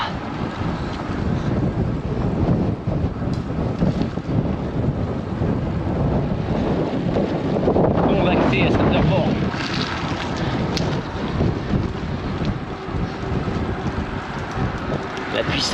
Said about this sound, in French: Donc je vais faire ces derniers kilomètres euh, tranquillement, en pensant aux coureurs du tour qui vont se déchirer avec le vent qui est très très fort ici.